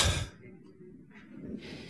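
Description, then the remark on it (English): A door opens with a sharp clatter at the start, followed by low rumbling movement and faint shuffling as a man comes in, arriving home. No one speaks. “Speak of the devil, he just got home.”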